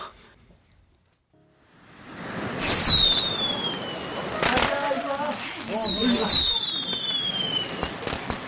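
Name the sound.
fireworks going off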